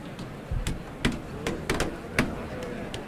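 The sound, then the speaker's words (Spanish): Irregular hard knocks on a door by many people, several sharp thuds scattered unevenly over a few seconds, with a faint low murmur in the background; a long queue of people knocking on the door as a Holy Week (Semana Santa) tradition. “Bueno, aquí está todo el mundo golpeando la puerta.”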